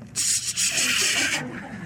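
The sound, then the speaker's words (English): A dense, sustained rustle of many Bible pages being turned at once by an audience turning to Joel chapter 3, a soft papery swishing that swells for just over a second and then fades, with no talking. “And I better not hear the gold trimmer on your pages separating for the first time.”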